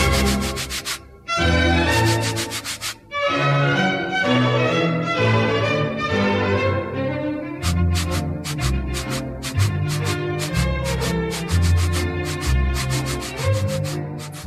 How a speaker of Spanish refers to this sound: Fíjate esta herramienta, el serrucho. Es útil, ¿no? La usas pues para serruchar y en cuanto termina su servicio, pues ahí la dejas y te vas a hacer otra cosa.